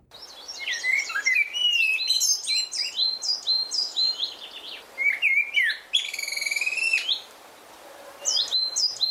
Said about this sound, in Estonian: eeldan, et üsna paljud vastavad teist üsna suur ja üsna paljud headest kuulajatest ilmselt ka teavad, et seda lõõrilist meeldivat lärmi teevad musträstad.